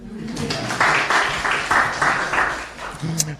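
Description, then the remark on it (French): Brief audience applause, a burst of steady rhythmic clapping that runs for a few seconds at moderate loudness before fading out. “On peut applaudir quand même.”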